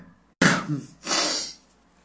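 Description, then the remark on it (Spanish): A single loud sneeze: a sudden sharp voiced burst, then a longer breathy, hissing blast of air that trails off into quiet. “Permítanme un momento, estornudaré.”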